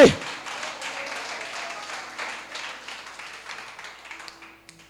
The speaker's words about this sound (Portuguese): Se é para aplaudir, aplaude que nem crente.